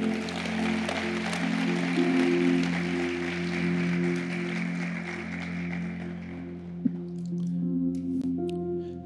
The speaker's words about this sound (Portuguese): O nosso Senhor Jesus. Amém. Aplauda o Senhor Jesus, por favor.